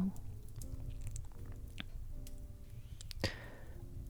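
A fireplace fire crackles, with scattered sharp pops and snaps over a steady low rumble, one louder crack standing out; a faint voice murmurs underneath.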